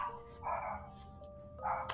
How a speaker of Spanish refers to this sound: Y si escuchan ahí un ladrido al fondo, es mi hija biológica que anda en el patio jodiendo.